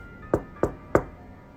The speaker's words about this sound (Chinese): 就在这时，更诡异的一幕发生了，有人竟然轻声敲了一下我所在的淋浴间的门。